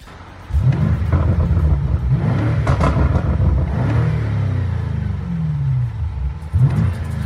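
A powerful luxury car engine revs loudly, rising and falling in several throaty bursts with a deep rumble, then surging again near the end.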